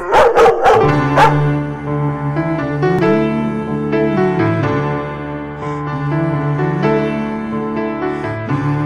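Several sharp dog barks burst out at the start, followed by drawn-out, tonal whining and howl-like cries that carry on steadily and fairly loud to the end, with no talking.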